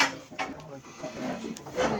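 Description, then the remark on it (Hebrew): A wooden chair scrapes and knocks against the floor as it is brought over for someone to take, a few rough dragging bursts over a couple of seconds, with faint voices murmuring in the background. “הנה יש פה כיסא, בוא, קח אותו. קח את הכיסא הזה.”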